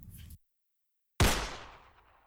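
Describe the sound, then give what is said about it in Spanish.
A single sharp, loud gunshot cracks out after a moment of silence, its echo trailing off over about a second. A brief low rumble is heard before it. “Estoy aquí en la lavadora sacando la ropa y escucho el disparo.”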